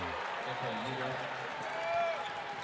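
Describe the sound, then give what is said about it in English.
A dense, continuous roar from a large basketball arena crowd in Phoenix, many of them Utah Jazz fans, cheering, swelling slightly toward the end, with a voice speaking briefly over it at the start. “Makes you wonder why there's so much noise. Those are Jazz fans.”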